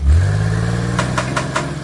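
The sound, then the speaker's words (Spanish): A car engine turns over and catches with a low rumble, then settles into a steady hum broken by a few quick revving bursts near the end. No one speaks. “Prender un carro es algo más que prender un carro.”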